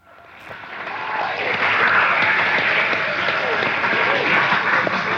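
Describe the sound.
A crowd bursts into a warm round of applause, dense clapping swelling within the first second and holding steady and loud, with a few cheers and voices mixed into the noise.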